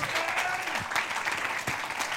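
Steady applause from an audience welcoming a person, a dense wash of many hands clapping at an even, fairly loud level throughout, with no speech over it.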